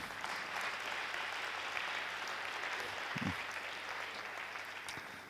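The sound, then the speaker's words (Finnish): Steady audience applause, a small round of clapping at a lecture on Women's Day, a dense crackle of many hands clapping at an even level throughout, with no voices over it. “Niin, niin tuota, otetaan pikku aplodit tässä.”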